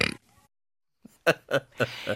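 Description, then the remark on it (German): A dog lets out a few short, guttural burps in quick succession, each a brief throaty grunt, after a moment of near silence. “Es war ein Hund.”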